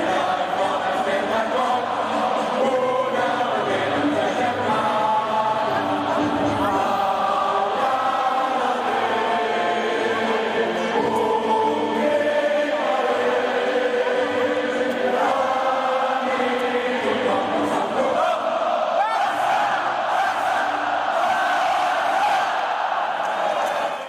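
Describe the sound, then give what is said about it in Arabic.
A large stadium crowd sings the FC Barcelona anthem, written for the club's 75th anniversary, in unison, a loud, sustained wall of voices carrying a steady melody with rhythmic swells and occasional shouts rising above. “النشيد اللي تم تأليفه بمناسبة مرور 75 عام على تأسيس نادي برشلونة ومن عام 2003 آه، أمر رئيس النادي لابورتا أنه في بداية كل مباراة لبرشلونة تعرض كلمات هذا النشيد على شاشات ملعب الكامب نو”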